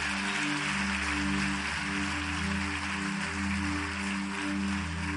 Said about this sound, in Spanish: Ahora dale un fuerte aplauso al Rey que vive.